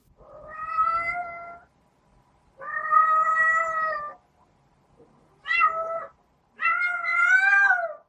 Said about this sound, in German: Mit dem Katzengesang wiederum versuchen rollige Kätzinnen, Sexualpartner anzulocken. Es ist der Laut der Liebessehnsucht.